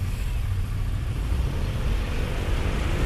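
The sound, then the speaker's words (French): A steady, dense rumble of heavy evening road traffic in the rain in Paris, heard while cycling to work from Les Moulineaux in the southwest toward Nation in the east, low and continuous like cars idling and crawling, with a broad hiss of engines and tires and no voices. “Oh là, c'est quand même grotesque là, le trafic ce soir.”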